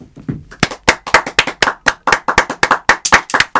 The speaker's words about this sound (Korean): 자, 박수.